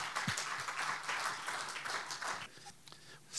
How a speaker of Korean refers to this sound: 할렐루야 우리 하나님께 감사 영광의 박수 올려드리겠습니다